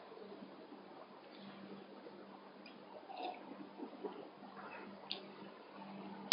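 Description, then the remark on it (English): Water is poured into a cup in a quiet, steady trickle with soft gurgles, a few faint clinks and splashes near the end, all low in level. “Cup of water.”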